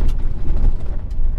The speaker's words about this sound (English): I'm going over this washboard road right now, so I apologize for the audio